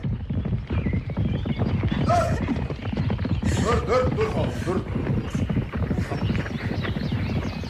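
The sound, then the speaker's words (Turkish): A runaway horse that its rider cannot control or stop gallops in a fast, pounding rhythm that never lets up, loud throughout, while a man shouts urgently over it and the horse whinnies briefly midway. “Tren dizginlerini yakaladım korkma.”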